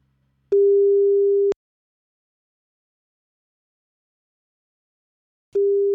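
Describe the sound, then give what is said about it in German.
A telephone ringback tone from an outgoing call to a theatre dramaturge: a steady, clear mid-pitched beep lasting about a second, then a long silent pause, then the next ring begins. No one speaks. “Und äh, du, den rufen wir jetzt einfach mal an.”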